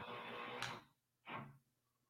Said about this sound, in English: Somebody, somebody's drilling somewhere. You hear that, right? Yeah. Okay. Yeah. That that's what I was talking about earlier, and I was like, "What the hell is going on?"